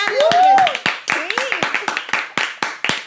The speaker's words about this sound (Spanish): Otro, aplauso